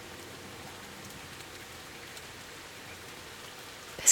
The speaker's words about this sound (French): Alors je l'accepte et j'ouvre la fenêtre et j'écoute avec toi la magnifique chanson de la pluie et puis la magnifique chanson de l'orage aussi.